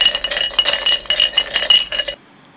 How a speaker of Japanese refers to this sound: 氷の音となんか瓶の音が混ざってる感じですねこれあれですね炭酸に入れた氷が溶け始めて多状態で全力でコップを振っている音です